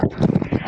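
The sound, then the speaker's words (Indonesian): A sliding fence gate is pushed along its track, played as a sound effect, with a quick series of rhythmic metallic clacks and a low rumble, fairly loud, lasting under a second. “ini suara apa sih ya itu suara pagar digeser iya, sound effect”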